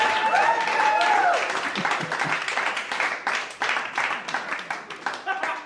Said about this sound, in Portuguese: Olha só, eu quero aplausos da plateia. Calma que eu vou pôr o celular lá na janela, que aí você vai ouvir os aplausos dos nossos ouvintes.